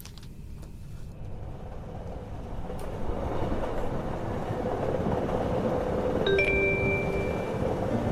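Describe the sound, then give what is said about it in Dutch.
A train rolls steadily along the tracks toward Heerlen station, the end of the line, in the Netherlands, with a dense, continuous low rumble that gradually swells, and a couple of brief high tonal squeals or chimes appear near the end. “Het volgende station is Heerlen, tevens het eindpunt van deze trein.”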